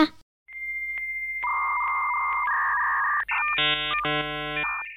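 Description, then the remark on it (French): A voice imitates a 56K dial-up modem connecting: a steady high whistle shifts pitch in steps, then bursts into harsh, buzzing handshake screeches, loud, with no other talking. “Je peux imiter un modem 56K.”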